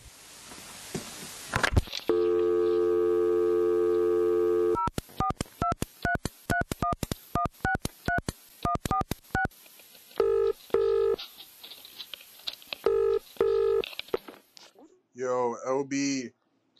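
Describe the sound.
A steady telephone dial tone gives way to a rapid run of keypad dialing beeps, then a pulsing busy signal repeats several times before a voice briefly speaks at the end.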